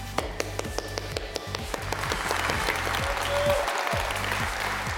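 A standing audience bursts into loud, sustained applause welcoming a speaker, dense clapping swelling into a steady roar for several seconds, with sharp individual claps and a low rhythmic thumping underneath.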